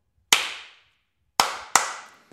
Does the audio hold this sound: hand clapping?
yes